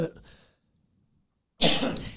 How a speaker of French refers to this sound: On ben, peut le dire pourquoi. On, va le dire une fois pour toutes pourquoi ben qu'on tousse. On, a, mangé des J'ai fait l'erreur de manger un bit puis je me suis étouffé avec.